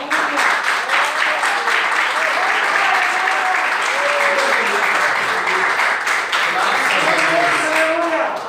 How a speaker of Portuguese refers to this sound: E as palmas que adorem ao Senhor.